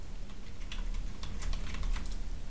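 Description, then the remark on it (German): Someone types on a computer keyboard, a steady run of quick, light key clicks, with no voices over it. “Hier tippt nicht mal, einer gerade.”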